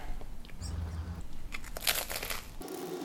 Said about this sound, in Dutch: Ik ga een hapje nemen.